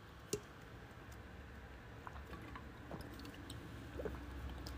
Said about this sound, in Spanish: Dame un momento que voy a beber un poco de agua.